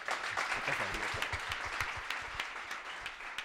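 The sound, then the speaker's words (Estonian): Steady crowd applause with dense, overlapping claps at an even loudness, sustained for a few seconds without pause; a few sharper individual claps stand out from the broad wash of sound. “nii et eh, palun suur aplaus meiega.”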